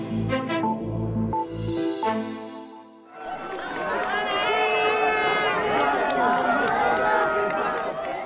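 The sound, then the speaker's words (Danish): After a brief musical sting, a large crowd of Saint-Denis residents erupts into loud, sustained jeering at the visiting French president and candidate Emmanuel Macron, many voices shouting and booing together in a dense roar that continues without pause. “Som man kan høre her, ja, så var det i hvert fald ikke alle beboerne i saint saint denis der var vilde med, at den franske præsident og kandidat Emmanuel Macron besøgte dem her torsdag på falderæbet af valgkampen.”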